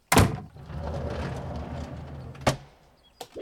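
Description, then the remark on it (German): A door-closing sound effect, selected from a list of door sounds: a sharp clunk, a couple of seconds of low rolling slide, then a firm thud as it shuts, followed by a few faint clicks. No talking. “Select the sound for when your door closes.”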